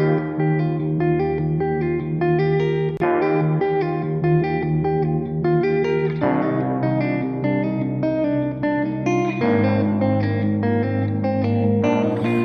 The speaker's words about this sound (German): Jetzt hören wir den Song. So, falls Sie gerade im Auto sitzen oder zu Hause sind vor Ihrem Volksempfänger, bitte drehen Sie den Begel ganz nach rechts, also von sich aus gesehen rechts.